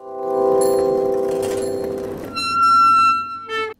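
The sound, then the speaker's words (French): Old bicycle brakes squeal loudly and steadily for several seconds, a grinding, tonal screech that shifts to a higher, shriller whine before cutting off abruptly. No voices are heard. “J'adore le bruit de ce vieux vélo en train de freiner.”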